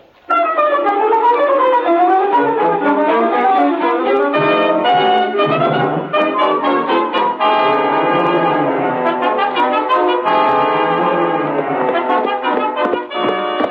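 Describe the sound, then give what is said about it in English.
A loud town alarm bell, rung because the bank was robbed, rings on and on without pause, its bright metallic tones overlapping in a dense, continuous clangor with no voices. “bell was still ringing when Alf and I rode up to Gabe's office.”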